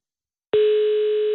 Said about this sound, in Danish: Er der nogen, der ringer, bliver der ringet op til nogen?